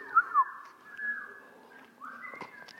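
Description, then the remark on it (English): Several audience members whistle together, a jumble of overlapping sustained tones and brief rising chirps, moderately loud and with no talking over it. “I can't whistle.”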